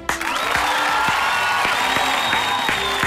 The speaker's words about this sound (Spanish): Y fuerte el aplauso para el gran ….